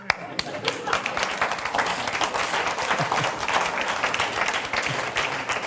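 An audience breaks into sustained applause, many hands clapping in a dense, steady wash that stays fairly loud and even for several seconds.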